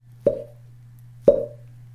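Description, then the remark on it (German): Two punchy, popping snare drum hits land one second apart, each with a sharp attack and short decay over a steady low hum, with no voices; the snare part was recorded separately and re-recorded through a loudspeaker placed on top of the snare drum with a microphone beneath. “Und da denken wir an diesen so markanten, poppenden Snare-Sound.”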